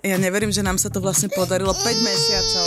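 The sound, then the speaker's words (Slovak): An infant cries in the background, a thin, high wail that comes through more clearly near the end while a woman keeps talking over it in the foreground. “Ale pozrite, že to... prestane plakať.”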